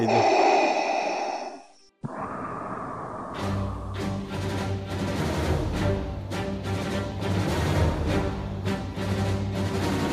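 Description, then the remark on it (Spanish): A loud, hissing mechanical respirator breath of Darth Vader fills the first two seconds, then cuts off as a brassy orchestral march with heavy, steady drum beats takes over. “Dios mío, que suene esa respiración de Darth”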